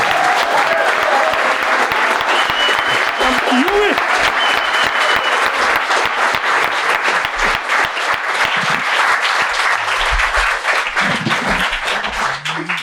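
A large crowd breaks into loud, sustained applause with dense, rapid clapping and some cheering for someone standing on stage for the first time, filling the whole stretch before easing slightly near the end.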